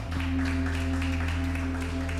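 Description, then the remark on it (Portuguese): Continuous crowd applause for God, a dense steady patter of many hands clapping for a couple of seconds over a sustained low droning tone, with no voices. “Vamos aplaudir a ele porque ele é bom.”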